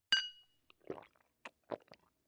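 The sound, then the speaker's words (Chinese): Glasses clink together once as a wife and husband toast over a home dinner, a bright ringing chime that fades over half a second, followed by a few soft, uneven liquid sounds like sips or swallows. “啊，来，咱们一起干杯！”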